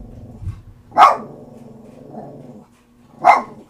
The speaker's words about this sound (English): You know, it thunders once, and the fucking dogs think, I don't know, an hour later they're fucking still bark. Oh, there it goes. God damn it.